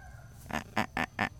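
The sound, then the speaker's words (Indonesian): A harsh, raspy bird call repeats in five quick, rhythmic bursts, loud, with an eerie, grating quality over a low outdoor background rumble. “aduh ini suara burung-burung di sini serem amat sih tuh lu denger gak sih”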